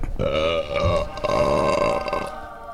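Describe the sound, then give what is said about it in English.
A long, loud belch rolls on for nearly three seconds, deep and croaking with a steady pitch that wavers and rasps before trailing off at the end. “Two is was that a belch?”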